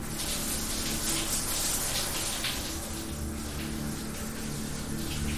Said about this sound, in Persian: پس ترسم و گذاشتم کنار رفتم زیر دوش آب داغ و با خیال راحت دوش گرفتم